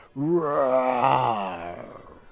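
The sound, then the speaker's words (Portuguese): A human voice imitates a jaguar's roar of joy: one long, loud, growling groan that holds for about two seconds, its pitch sliding gradually lower before it trails off. “De repente, a onça se percebeu enxergando de novo e urrou de alegria.”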